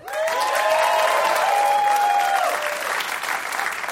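A crowd bursts into steady, enthusiastic applause, with a few whistles and cheers riding over the clapping before it eases slightly toward the end.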